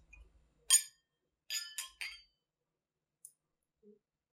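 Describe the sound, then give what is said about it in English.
Glasses clink together in a toast: one bright chime, then a quick cluster of three overlapping clinks, followed by a faint tap. Crisp, with no talking. “Cheers. Cheers. Cheers.”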